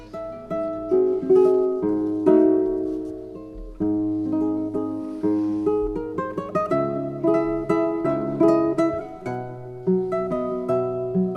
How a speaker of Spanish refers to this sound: Fíjate, vamos a escuchar un poco cómo suena este tipo de guitarra. En esta ocasión, la denominada Invencible en manos del guitarrista ….